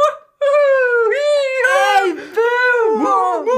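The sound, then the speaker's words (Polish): A voice imitates the abnormal moo of a cow picture that mooed when clicked, the right-hand one of two cow pictures: a long, wavering, whiny tone that bends up and down in pitch, breaking into strained, squeaky warbles, loud and without any other talk. “A jak kliknąłeś tą po prawej, to było tak było!”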